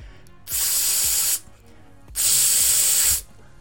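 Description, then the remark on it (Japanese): A voice imitates a revived deodorizer spray with two long, loud hissing bursts, each lasting close to a second, separated by a brief pause, bright with no speech. “で僕これ結論から始めました消臭スプレーのモノマネをしたんですというのが結論です”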